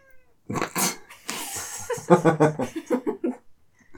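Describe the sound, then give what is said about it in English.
A cat named Stevie yowls and caterwauls in a run of loud, drawn-out cries with wavering pitch, some breaking into short, strained bursts, with no talking over them. “Stevie, you gotta be a little quiet, kitty.”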